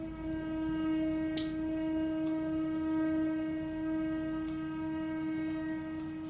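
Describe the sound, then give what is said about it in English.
A heavy goods train rumbles past, its engine giving a loud, steady droning hum that holds for several seconds, with a single sharp clank partway through and no voices. “that's the heavy goods train, which I'm just going to allow to pass now, so we'll cut a few seconds until it's out the way.”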